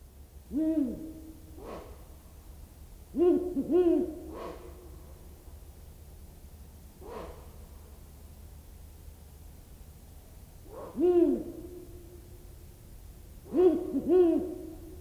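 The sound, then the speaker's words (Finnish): An owl hoots repeatedly at night in short, clear two- and three-note phrases separated by pauses, distinct against a steady hiss of quiet night background, with no voices. “Tästä se lähtee Luontosuomen pöllöilta.”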